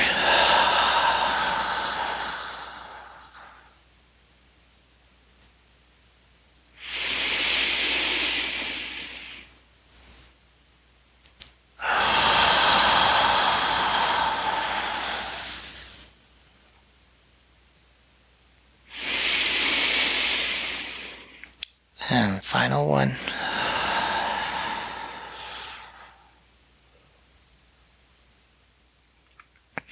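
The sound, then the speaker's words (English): Slow, deep breaths in a guided breathing exercise: long airy inhales and exhales, about four in all, separated by short pauses, with a brief rustle or click near the end and no talking. “three more together.”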